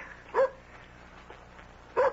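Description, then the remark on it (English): A dog at the door barks twice, short sharp woofs spaced well apart, against a quiet, low background hum. “that's Nikki at the door with my dog”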